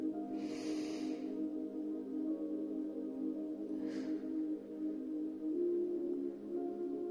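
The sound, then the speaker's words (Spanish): A slow, deep breath is drawn in and then let out, soft and airy, during a guided heart chakra meditation, over a steady, sustained musical drone that continues throughout. “Voy a dar otra respiración profunda.”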